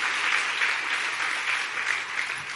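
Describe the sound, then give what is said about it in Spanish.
A crowd claps steadily in praise to Jesus, a dense wash of many hands applauding together at moderate volume, sustained throughout with no voices standing out. “Dale un buen aplauso de alabanza a Jesús.”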